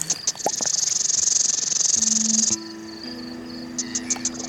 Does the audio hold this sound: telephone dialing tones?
no